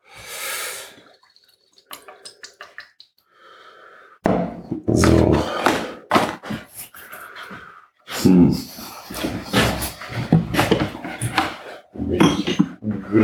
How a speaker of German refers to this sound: Einmal, hoffentlich hört man das nicht so, muss ich euch anheben wegen der Sojasoßenflasche.